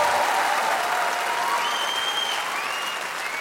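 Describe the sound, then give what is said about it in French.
An audience in a hall in Montreux, Switzerland, including French people, applauds steadily. A dense wash of clapping hands stays loud throughout, with a few faint whistles rising above it and no one speaking. “Par applaudissement, il y a des Français dans la salle ce soir à Montreux.”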